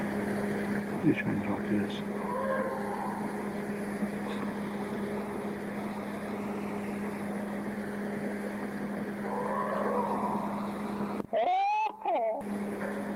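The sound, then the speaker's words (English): A short, loud burst of rapid, jabbering chatter-like vocalizations, purportedly from Bigfoot, comes near the end, cutting over a steady low droning hum. Faint murmuring vocal sounds drift in the background earlier. Recorded in the Sierra Nevada in the 1970s or 80s. “I think you hear a little bit of samurai chatter.”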